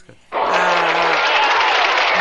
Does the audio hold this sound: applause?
yes